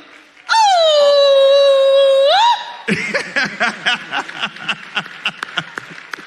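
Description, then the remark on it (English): A church crowd calls out a long, loud, high "ooooh" on request, held for about two seconds and rising at the end, followed by bursts of laughter and excited chatter. “Can I get a ooh?”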